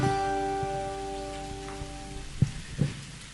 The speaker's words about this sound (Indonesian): Beri tepuk tangan bagi Tuhan Yesus.